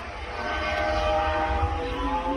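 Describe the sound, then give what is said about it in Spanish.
A Formula One car's engine screams past on the Jerez race circuit during closed-door Pirelli tyre testing for 2024, recorded by a fan; a loud, sustained, high-pitched whine with a rich harmonic buzz that holds steady for a couple of seconds. No one speaks. “son a puerta cerrada, pero uno de los aficionados que se han acercado ha podido grabar este sonido al paso de los BTS.”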